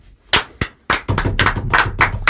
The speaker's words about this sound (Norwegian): Eh, så hun fortjener jo tulipan, altså en bukett med tulipaner og en eh, applaus